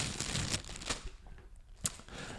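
A hand reaches into a bag again to draw out the next term, with crinkly, papery rustling and a few sharper crackles, fairly quiet, with no voices over it.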